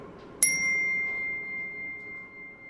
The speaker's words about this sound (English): So we use this little bell.